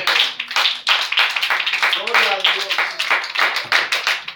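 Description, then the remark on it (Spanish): An audience applauds to the Lord during an evening sermon, steadily for several seconds, a dense wash of clapping with a loose rhythmic pulse, while a few voices call out and cheer over it. “Que Dios es más grande que nuestros problema Tengo un aplauso al Señor entonces esta noche.”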